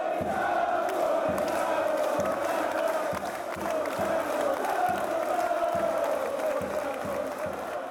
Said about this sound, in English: That's a noise of a couple thousand fans cheering on their beloved Crawley Town FC.